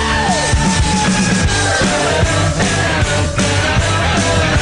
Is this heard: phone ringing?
no